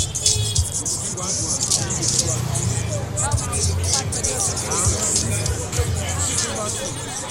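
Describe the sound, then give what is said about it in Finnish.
A busy street scene in Sierra Leone with a steady wash of crowd chatter and passing vehicle engines, continuous and fairly loud throughout, with occasional short tonal bursts of horns as okada motorcycle taxis weave through traffic, constantly honking. “Okadat, moottoripyörätaksit pujottelevat uhkarohkeasti muun liikenteen seassa koko ajan tööttäillen.”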